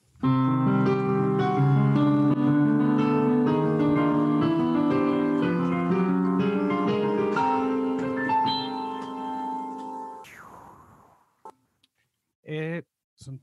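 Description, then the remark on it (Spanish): A loud, forceful melody of sharply plucked notes on a tuned guitar rings out for about ten seconds, then cuts off abruptly, followed by a brief sweep and a couple of short faint sounds. “Este, rápidamente, ya que está afinado, este, mm, empieza a tocar una melodía eh, con mucha fuerza.”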